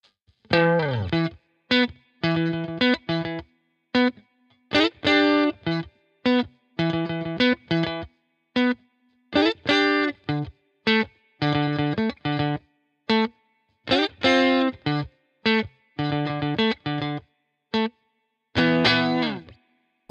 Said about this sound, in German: Jetzt würde doch ein Ping-Pong-Lick ganz gut dazu passen. Und so hört sich mein Beispiel an.